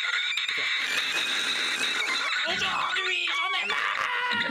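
A prototype electronic instrument, its small silver touch plates connected to a loudspeaker inside, squeals and warbles continuously, its wavering high tones bending and chirping up and down, loud, with no talking over it.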